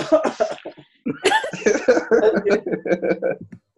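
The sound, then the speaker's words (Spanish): Loud coughing from a person, a few harsh bursts followed by a longer run of choppy, laugh-like coughs, apparently a voice imitating a cough rather than a real one. “No, además como que yo estaba dormido, fue como, como una tos tardía, porque sonó y luego yo hice...”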